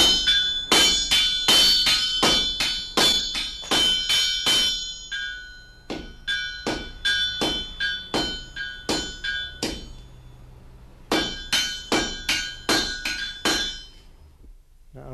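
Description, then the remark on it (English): A sledgehammer rings repeatedly on a three-quarter by half iron bar against an anvil, drawing the iron out and thinning it on one side, a steady run of loud metallic strikes with bright, ringing overtones, pausing briefly before the rhythmic blows resume. No one speaks. “No, we're drawing out a piece of iron.”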